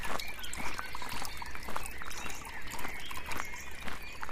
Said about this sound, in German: auch hier so ein richtig nice Outdoor-Backstage mit Bänken, einem kleinen Bach, der da durchfließt, ein großer überdachter Holzhaufen.